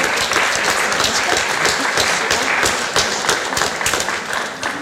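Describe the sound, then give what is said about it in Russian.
A crowd breaks into vigorous, sustained applause as a participant's diploma is presented, dense overlapping claps forming a steady loud roar that holds for several seconds with no speech over it. “бурные аплодисменты и наш диплом участника”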